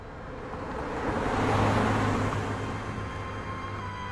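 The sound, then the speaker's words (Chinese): A car drives slowly past along a lane lined with cherry trees, its broad tire-and-engine rush swelling steadily to a peak midway, then easing off again, with a low steady motor hum underneath and no voices. “车子在妈妈喜爱的樱树小路上，像是慢镜头般的行驶而过。”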